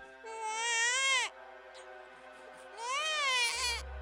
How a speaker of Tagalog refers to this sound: Maya-maya pa po ay may narinig akong iyak ng sanggol.